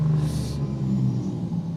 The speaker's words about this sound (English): Ooh, nice little bit of a nice truck, little truck uh, rolling through.